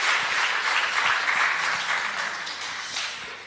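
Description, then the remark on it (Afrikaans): A crowd applauds steadily, many hands clapping in a dense, continuous patter that stays fairly loud before easing slightly toward the end. “Nou kan julle maar hande klap, hoor.”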